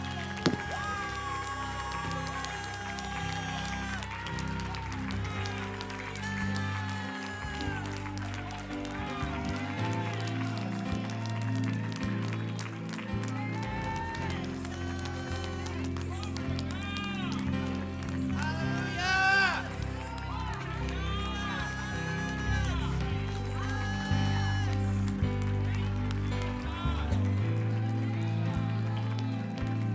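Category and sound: crowd, audience cheering and clapping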